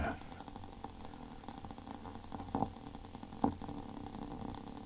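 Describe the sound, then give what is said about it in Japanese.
Water boiling close up, a steady low bubbling rumble that churns continuously, with a couple of sharper pops breaking through near the middle. “沸騰してきたかないいですね。ボコボコ言ってますね。”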